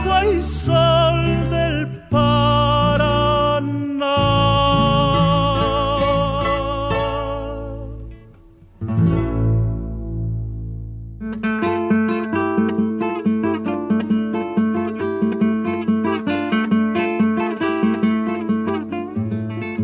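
An Argentine litoral folk song plays with rich harmonic instrumental and vocal lines, pausing briefly around two and nine seconds, then continuing with a steady, brighter rhythmic accompaniment at a moderate level.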